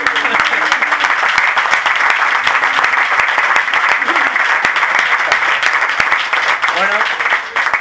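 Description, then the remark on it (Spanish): An audience breaks into sustained applause, a dense, steady wash of many hands clapping at an even loudness for several seconds, with faint voices mixed in. “Pues eso se merece un aplauso.”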